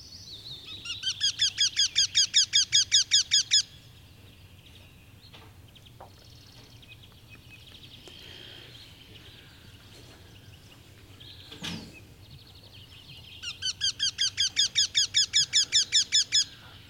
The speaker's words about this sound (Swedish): Göktyra, ska vi lyssna på den fram och tillbaka? Jag letar upp den här snabbt.